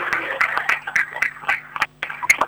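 applause

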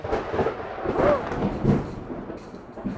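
thunder rumbling

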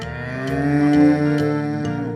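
cow mooing

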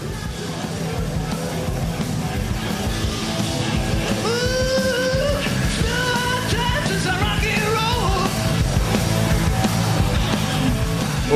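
rock concert recording

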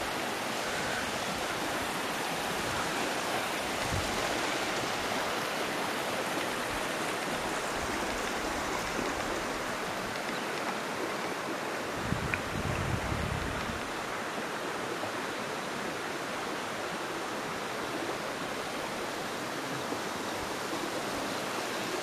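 flowing river stream

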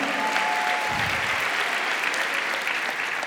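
audience applause

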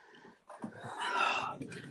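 puppy whimpering and panting

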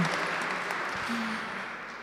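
audience applause

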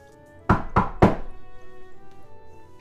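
knocking on a door

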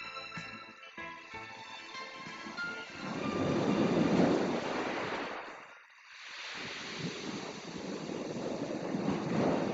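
ocean waves

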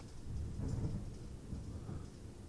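thunder

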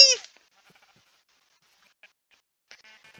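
sheep bleating

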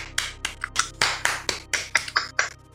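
hands clapping

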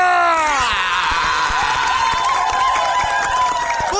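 applause and cheering

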